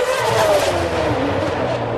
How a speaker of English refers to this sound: This is completely surreal. I'm standing in the middle of Wembley, right by the circuit, as Lewis Hamilton comes past. Listen to this.